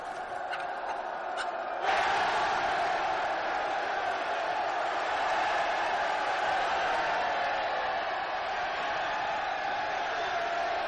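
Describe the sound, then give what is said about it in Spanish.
After a couple of seconds of faint ticking, a large crowd breaks into loud, sustained cheering, acclaiming a new bishop at the doors of the former Serapeum, now a Christian temple; a steady roar of many voices that holds without pause to the end. “Sale a las puertas del antiguo Serapeo, ahora templo cristiano, a recibir la aclamación popular como nuevo obispo.”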